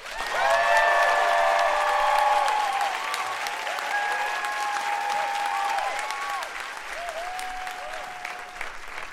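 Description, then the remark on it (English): A large audience claps loudly and steadily to welcome Patrisse Cullors, with whoops and sharp whistles rising over the applause; the ovation holds for several seconds before easing slightly toward the end. “Ladies and gentlemen, please welcome and make some noise for Patrisse Cullors.”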